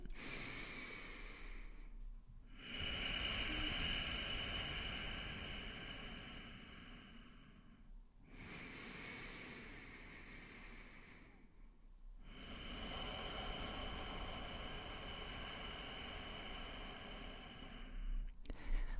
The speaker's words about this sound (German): Das heißt, du atmest weiter durch die Nase ein und durch den durch die Nase aus, aber mit diesem Gefühl dieses Hauchens, mit dieser Anspannung, mit dem Rauschen.